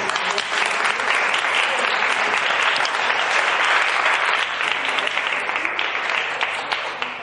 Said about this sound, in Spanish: Y hoy pues, nos presenta su trabajo eh, titulado Mediunidad y de cura. Gracias. Un aplauso.